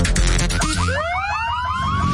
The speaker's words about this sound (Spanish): Sabemos que las bocinas y los ruidos son molestosos.